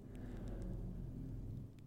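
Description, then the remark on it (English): A steady, deep rumble of a thunderstorm rolls through the whole stretch, low and fairly quiet, with faint crackles on top and no voices. “Ooh, the storm is getting stronger.”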